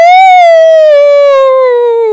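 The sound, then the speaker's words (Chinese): A voice imitates a wolf's howl: one long, loud, steady wail that starts high, swells briefly, then slowly slides lower over about two seconds, with no other sounds around it. “哈，原来大野狼会这样嗷呜，是因为 屁股坐到石头上觉得很冰。”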